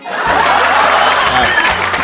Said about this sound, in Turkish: Durun. Araba maraba kullanıyorsunuzdur. Ben alkış efekti basayım.